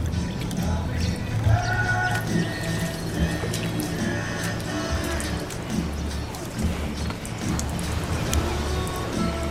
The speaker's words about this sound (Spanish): Aquí escuchamos eh, del agua en la piscina, una música de fondo, cómo abrimos una botella, eh, chocan los vasos de Margarita, Margarita al lado de la piscina y de repente suena un teléfono, suena un teléfono